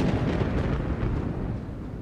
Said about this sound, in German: Der Sturm gibt nicht nach, er tobt weiter. Der Sturm wird heftiger. Jetzt kommt auch noch ein Gewitter.